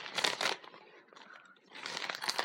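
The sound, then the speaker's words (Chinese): Someone crunches potato chips: two dense bursts of crisp, crackly chewing with a quieter, softer stretch between them. No one speaks. “这是我吃薯片儿， 一个声儿，一个声儿，也看不也没啥太大那啥。”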